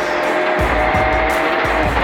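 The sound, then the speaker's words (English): A rally car driven by David Higgins and Craig Drew races flat out on a stage early in the event, its engine roaring loudly and steadily with rapid low thumps from gravel and suspension, and a thin high whine running through the noise. “As David and Craig take to the stages, their goal is to set an early pace.”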